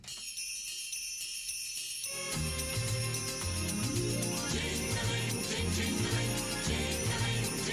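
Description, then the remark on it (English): A bright, shimmering jingle of sleigh bells opens a festive Christmas song, joined after a couple of seconds by a bouncy bass line and full band, loud and upbeat. “Just hear those sleigh bells jingling, ring ting tingling too.”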